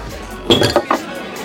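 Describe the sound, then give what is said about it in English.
Glasses clink together in a toast, three bright ringing taps in quick succession, fairly loud, with a faint murmur of voices in the background. “I, I love you guys. Cheers. Yeah, cheers.”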